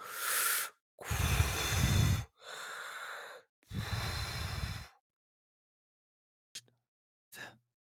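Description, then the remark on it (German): A voice imitates the heavy snoring of a sleeping Tatzelwurm, like bellows being inflated: four long, loud rasping breaths in and out in slow rhythm, then two brief faint snorts after a pause. “Du hörst tatsächlich, du kannst nicht hundertprozentig einschätzen, aus welcher Richtung es kommt, aber du hörst ein Geräusch wie von einem Blasebalg, der aufgeblasen und”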